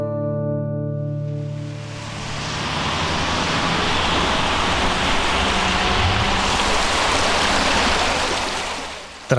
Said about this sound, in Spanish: varios días de lluvia, el riachuelo que discurre paralelo a Itzea baja crecido.